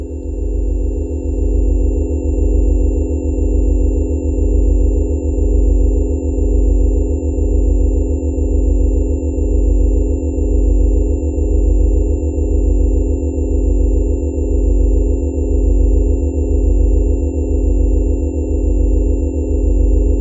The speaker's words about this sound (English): Let's enjoy a brief sound bath of … from ….